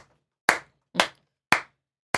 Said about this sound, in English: Slow clap, everyone.